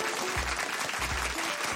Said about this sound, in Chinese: 恭喜校园模范生得主。小珍与听仔，大家掌声鼓励。